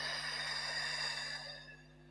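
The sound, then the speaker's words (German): A long, airy exhale through the mouth, soft, as part of a guided breathing exercise, that trails off and fades near the end over a faint steady hum. No one speaks. “Aber wenn ihr liegt, steht, was weiß ich, legt doch mal gerne eure Hände auf euren Bauch, atmet einmal tief dort hinein und durch den Mund lang aus.”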